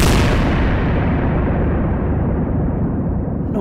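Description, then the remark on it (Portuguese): A single powerful cannon blast erupts at full volume, its sharp crack fading into a long, heavy rumble that rolls on for several seconds. No voices are heard. “Estar no canhão quando ele rebenta? Não, não. Claro que é isto é um, é um estrondo enorme”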